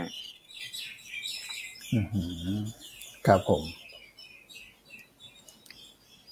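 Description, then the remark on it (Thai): Birds chirp busily and continuously at a home in the morning, a dense twittering chorus as the birds scatter from their nest, carrying throughout, with a man briefly speaking over it partway through. “ที่บ้านใครมีเสียงนกร้องฮะไพรรองมากเช้านี้ นกแตกรังเลยฮะทำไมคุณไปทำอะไรฮะทำไมนกร้องขนาดนั้น”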